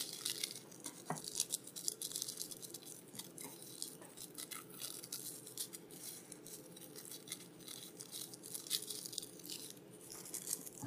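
An extra little piece of thin rolling paper is pulled off and handled while rolling, a quiet, continuous papery crinkle with scattered small crackles and rips over several seconds, with no one talking.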